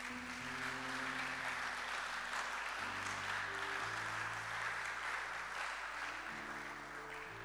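An audience claps steadily for several seconds, a dense, even wash of many hands, while sustained low keyboard or organ chords shift underneath. No one speaks.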